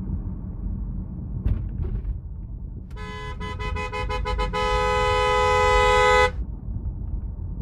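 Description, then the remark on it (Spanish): A red truck's horn honks over steady road rumble on a highway late at night: a few quick stuttering blasts, then one long, loud sustained blare that swells for about two seconds before cutting off abruptly. “Un camión rojo se puso detrás mío. Comenzó a utilizar sus luces y a tocar la bocina.”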